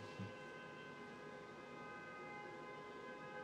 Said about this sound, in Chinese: 你看，就有一台车在那边按狂按喇叭。嗯，这就是要去耶诞城的。